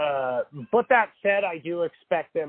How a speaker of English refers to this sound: I hear you, Kamala Cat. Um, that's my cat Kamala in the background for those of you listening. She is not going to shut up.